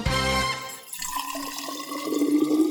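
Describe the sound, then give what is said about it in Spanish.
Hot water is poured into a mate gourd with fresh yerba: a short burst of splashing, then a steady trickling pour whose pitch creeps upward as the vessel fills, clear with no voices. “Yerba renovada y agua lista para volver a tomar unos ricos mates”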